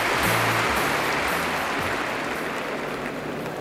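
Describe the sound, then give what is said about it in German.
A crowd of 80,000 people in the Olympic Stadium in Munich roars and cheers at the 1972 Munich Olympic Games, a dense, steady wash of noise with a low rumble and faint tonal sounds underneath, holding loud and unbroken throughout. “Und es braust ein Jubel von 80.000 Leuten auf.”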